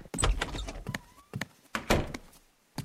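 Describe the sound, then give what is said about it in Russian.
A door bolt rattles and clunks in a quick series of loud metallic knocks and scrapes, with short pauses between bursts and no voices. “Еще минута, загрохотал болт у двери”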